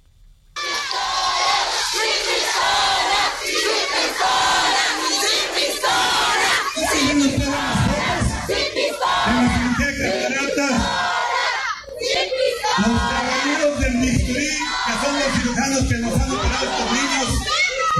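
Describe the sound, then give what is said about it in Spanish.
A large protest crowd in Tangancícuaro, Michoacán, shouts loudly and continuously against the town's mayor, voices rising together in rhythmic chants that repeat with a steady pulse. The roar is dense and unbroken from start to finish. “Escuchemos cómo suena la manifestación en contra del alcalde Mataperros allá en Tangancícuaro”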